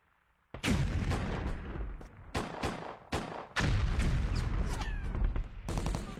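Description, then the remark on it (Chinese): A dense barrage of gunfire and artillery: sharp cracks and heavy booms pile up in rapid, overlapping bursts, loud and continuous after a brief quiet start, with no voices, as Japanese and puppet troops withdraw from a virus experiment base in a story scene. “随着枪炮声响成一片，田木港川在一群日伪军的保护下撤离病毒实验基地。”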